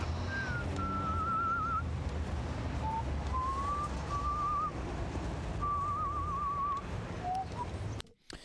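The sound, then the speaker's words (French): A lone, wavering whistled melody with slow gliding and trembling notes, eerie and horror-film-like, drifting over a steady windy rumble before cutting off abruptly. “Ce sifflement, c'est le sifflement de, dans un film d'horreur, tu sais.”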